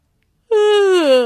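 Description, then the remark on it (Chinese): A single voiced yawn, loud and alone, that starts abruptly after a short silence and glides steadily downward in pitch as it stretches out into a sleepy moan. “…打了个哈欠”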